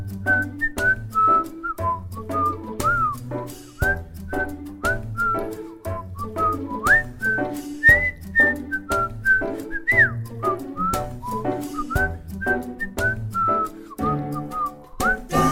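A whistled melody of bright, gliding high notes plays over a steady rhythmic backing with a pulsing bass beat, the tune moving in short phrases with slides between pitches.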